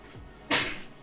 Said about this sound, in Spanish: Tengo. Voy a estornudar.